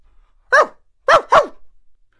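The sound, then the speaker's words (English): A dog at a house barks three times, loud and clear, in answer to the doorbell being rung: a single sharp bark, a short pause, then two quick barks in a row, with no voices around them. “Holmes rang the bell, and to my great surprise, the immediate response was loud and clear.”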